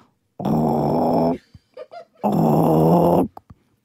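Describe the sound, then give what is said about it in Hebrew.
A voice imitates the odd noise of a running dishwasher with two loud, low, buzzy growling bursts, each about a second long, separated by a few short clicks and mouth sounds. “אני אומרת לו, אתה לא שומע את זה, אני שומעת כל מיני, למשל עכשיו, המדיח, הוא עובד והוא עושה מין...”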